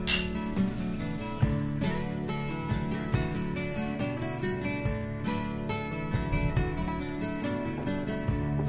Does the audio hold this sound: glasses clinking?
yes